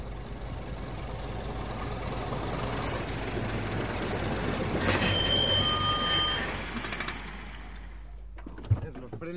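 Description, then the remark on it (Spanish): A heavy engine of a WWII Panther tank rumbles loudly and steadily while its metal tracks clatter and squeal, rising to a shrill grinding in the middle before the noise drops away, ending with a sharp knock. “Es una pantera.”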